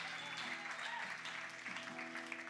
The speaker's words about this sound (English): Can we give it up for the King of Kings in this place? So you gave them a good round of applause. Come on, for Jesus.